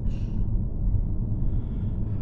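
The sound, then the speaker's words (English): A long, breathy yawn, starting with a sharp intake and stretching into a low, steady exhale for about two seconds, with no talking. “Sorry, guys, but the yawning will help you, so I'm not sorry.”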